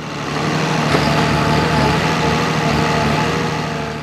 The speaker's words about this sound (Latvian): Nepilnas minūtes laikā nelielais bērns ir pārvērties par baļķu kaudzi, bet Harvestera galva tikmēr iekožas nākamajā stumbrā.